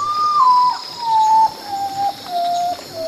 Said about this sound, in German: Der sieht einfach aus wie ein Baum. Punkt. Mit Flechten und Moos und so weiter. Der Uratau, der Tagschläfer.